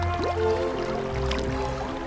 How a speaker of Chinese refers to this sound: 你泼我，我泼你，激烈的水仗就此展开。清凉的河水让人精神为之一振